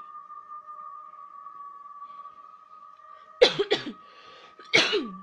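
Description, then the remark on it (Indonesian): Three sharp coughs, two in quick succession then one more after a short pause, over a steady electronic hum with no talking. “Alah, batuk.”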